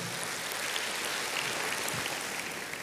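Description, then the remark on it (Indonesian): A large audience at a worship service claps together for God in a dense, steady wash of applause that holds at an even level for the whole stretch, with no voices rising above it. “Tepuk tangannya yang paling meriah buat Tuhan kita.”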